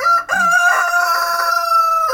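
A rooster lets out one loud crow by a chicken enclosure at the Viduļi farm in Smārde parish, Tukums municipality: a strained cock-a-doodle-doo that holds its pitch for about two seconds before breaking off, with no voices around it.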